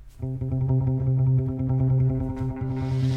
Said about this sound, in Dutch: een muziekstuk of eerder een geluidstuk gemaakt. om de geuren die een rol spelen in mijn proefschrift te vertalen.